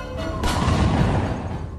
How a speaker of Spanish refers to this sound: Esta ha sido en la pierna derecha y el tercer disparo fue hacia la otra pierna.